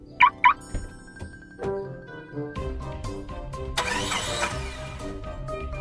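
Two quick electronic chirps, then the starter of a car borrowed from the speaker's mother cranks and the engine catches, settling into a steady idle with a brief surge of revving noise.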